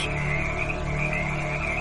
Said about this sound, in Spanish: No sé en qué momento me dormí, pero al despertarme todo el interior del vehículo estaba lleno de sapos.